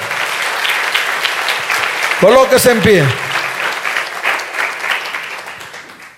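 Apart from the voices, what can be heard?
audience applause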